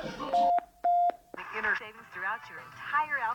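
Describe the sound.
Two short, loud electronic beep tones from an answering machine, evenly spaced, followed immediately by a caller beginning to leave a message.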